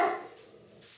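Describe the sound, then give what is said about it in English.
A single sharp dog bark opens the moment, then trails off into faint background barking from dogs reacting to a dog they see outside. No one speaks. “excuse my dogs.”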